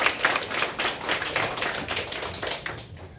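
Steady audience applause welcoming a consultant, a dense wash of many hands clapping at a fairly even loudness throughout, with no voices over it.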